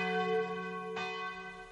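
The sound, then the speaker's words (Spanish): Church bells of a village church ring out with rich, sustained harmonic tones, a fresh strike sounding midway as the earlier peals hum and slowly decay; no voices. “Las campanas repican en la iglesia del pueblo.”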